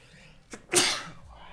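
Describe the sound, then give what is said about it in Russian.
A single sneeze with a short inhaled buildup before a sharp, loud burst that trails off quickly. “Да, будь здоров.”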